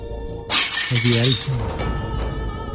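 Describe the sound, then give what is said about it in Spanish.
A glass bottle thrown during a fight shatters with a loud, sharp crash, bright tinkling fragments spilling for about a second while a voice cries out briefly over the debris. “lanzó una botella que terminó hiriendo a una mujer que nada tenía que ver con el conflicto”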